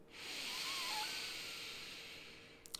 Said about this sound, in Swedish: Börja andas in, fylla upp magen.